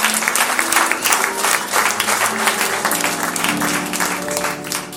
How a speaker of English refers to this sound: Shall we have a jubilant time? Lest I preach while it has already been preached. A round of applause, brethren.